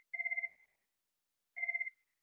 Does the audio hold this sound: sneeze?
no